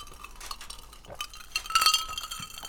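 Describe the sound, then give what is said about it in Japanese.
Glasses of a drink mixed with water (mizuwari) clink together in a toast, a bright ringing chime, with a few smaller taps and clinks around it against a quiet background. “まずもう、この涼やかな音がもうすでにね、美味しそうですけど。”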